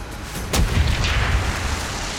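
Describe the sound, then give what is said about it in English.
A U-boat's deck gun fires a single loud warning shot, a sharp crack that breaks into a heavy low boom and a long rolling rumble, with no voices. “He must have been nervous because he kept firing from the deck gun even before our panic party had left.”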